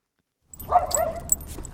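A miniature white poodle named Lupe lets out a quick flurry of high yips and short barks while on a walk through a quiet El Paso neighborhood on a sunny afternoon, after a brief moment of silence, with faint outdoor background noise beneath.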